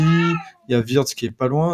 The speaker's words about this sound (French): Et je crois que le chat voulait donner son avis.